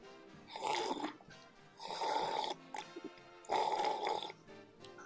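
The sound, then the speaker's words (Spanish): Three loud, drawn-out slurps of tea, each lasting under a second with short pauses between, hissy and wet with a slight whistling tone running through them. “Porque me pongo histérico cuando me sorben el té así.”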